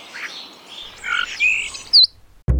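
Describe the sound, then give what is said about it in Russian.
Several birds chirp and tweet in quick, overlapping bursts, bright high-pitched calls rising and falling over a quiet background, ending with a sharp brief click. “Стало ясно, что птицы спешили занять себе жилье.”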